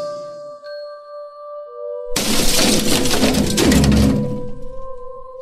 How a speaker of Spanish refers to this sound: Esta vez era el sonido de varias cosas cayendo al suelo al mismo tiempo, pero ahora desde mi cuarto de baño.